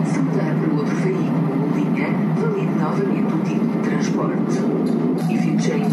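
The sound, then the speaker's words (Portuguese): Busy ambience at Trindade, the largest metro station in the city of Porto, Portugal, with a steady low rumble of trains and machinery, crowd murmur and voices mixed throughout, continuous and fairly loud. “Estamos na maior estação de metro da cidade do Porto, a Trindade.”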